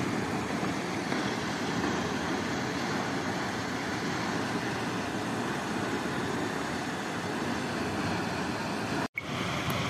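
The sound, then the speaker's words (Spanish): Water gushes and pours down from a leak, going to waste, in a steady, loud, continuous rush, a dense hiss with no voices, broken only by a sudden brief dropout near the end. “ya como que están cerrando la llave porque mira cómo se ve el agua como igualito se cae mira cómo se desperdicia el agua aquí”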